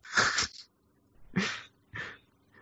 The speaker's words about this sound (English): He's got the buzzer. Lovely. This is fucking annoying, eh?